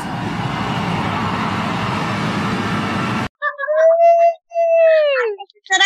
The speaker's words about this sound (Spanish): El aplauso del poliedro de Caracas.